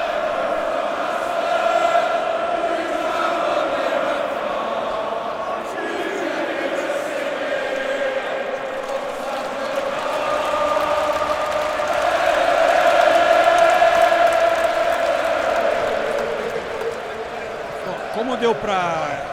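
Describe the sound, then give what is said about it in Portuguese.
A large crowd of Aston Villa football fans sings the 'allez, allez, allez' chant, a steady, melodic mass of voices that rises slightly in the middle and continues without pause, with no one speaking over it. “a torcida do Aston Villa também canta aquele alê, alê, alê, que o Liverpool introduziu há duas temporadas.”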